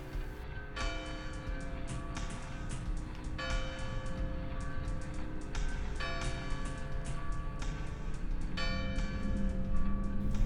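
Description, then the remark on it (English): A large town square clock bell tolls slowly for midnight, about four heavy strikes a few seconds apart, each ringing out with a long, resonant hum over a steady low background rumble. “The old clock in the town square rang out the hours, echoing to twelve, midnight.”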